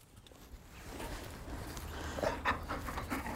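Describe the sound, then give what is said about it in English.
A canine partner dog, Rain, pants in quick, steady breaths at Chapel Common on a Sunday afternoon, a continuous breathy rhythm that builds slightly louder toward the end, with no one speaking. “Right, so the canine partner dog, Rain, you can sit down as well, please.”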